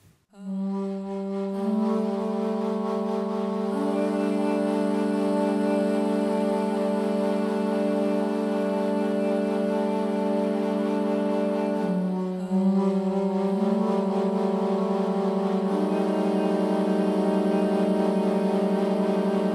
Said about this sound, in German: Texte Simon Lappert, Musik Marena Witscher.